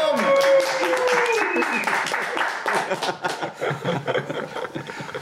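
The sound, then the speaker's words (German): A large audience at the main stage of a hacker congress in Prague applauds and cheers, dense clapping mixed with whoops and a whistle, filling the space at a steady, lively volume for several seconds before thinning slightly toward the end. “Ein riesiges Publikum!”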